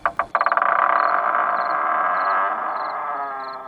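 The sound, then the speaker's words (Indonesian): The wooden door of a large toy wardrobe in a playroom creaks open in one long, drawn-out groan, starting with a few quick ratcheting clicks before settling into a steady, fairly loud creak that slowly fades toward the end. “Ternyata bunyi derit itu berasal dari pintu lemari besar tempat aneka mainan milik Keisha.”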